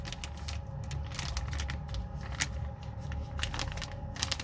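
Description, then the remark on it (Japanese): A plastic zipper storage bag used for keeping vegetables is handled, with crinkling and a run of sharp clicks and rustles at an irregular pace, fairly quiet and with no voices. “いやーこれねジッパーがもともとついてるやつだからありがたい”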